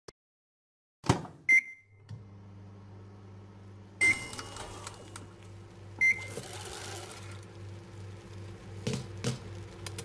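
microwave oven heating food

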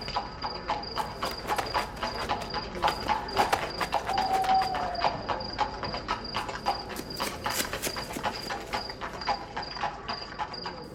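horses' hooves clip-clopping

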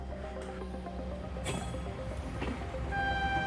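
train ride ambience

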